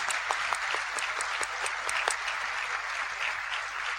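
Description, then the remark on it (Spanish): A crowd claps steadily for about four seconds, applauding a group at a business event, a dense wash of many hands with a few sharper, louder claps standing out near the start, then the applause holds at an even level with no voices. “Vamos a otro aplauso para eso.”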